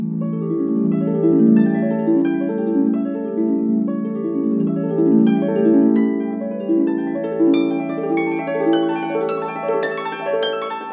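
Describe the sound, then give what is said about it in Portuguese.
Flowing harp arpeggios sweep up and down over soft orchestral chords in the introduction to the Waltz of the Flowers from Tchaikovsky's ballet The Nutcracker, played by the Minas Gerais Philharmonic Orchestra under assistant conductor José Soares, building into a bright, rippling waltz with crisp plucked notes clustering toward the end. No voices. “Toda essa fantasia que essa música nos proporciona tem um ingrediente especial: o som do instrumento que é o nosso assunto de hoje, a harpa.”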